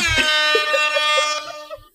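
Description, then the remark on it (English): A loud, sustained blast from a real air horn holds one steady, buzzy tone for about two seconds, unbroken, then cuts off abruptly. “is that a real air horn?”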